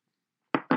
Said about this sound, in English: So yeah, cheers everyone. I'm, I'm gonna have a sip of my beer now.